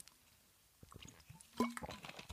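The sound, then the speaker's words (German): Someone takes a sip of water, with soft wet slurping and a few small gulping, dripping sounds, fairly quiet and brief, with no talking. “Drittens habe ich einfach Lust auf Wasser und darum trinke ich Wasser.”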